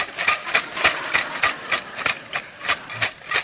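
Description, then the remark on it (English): A bag of small metal alarm clock parts is shaken in a steady rhythm, giving about a dozen bright, clattering rattles in quick succession with no voices. “You see, as I shake this bag, having all the pieces in the right place, I not only want to create an alarm clock that works, I want to create an alarm clock that produces little alarm clocks.”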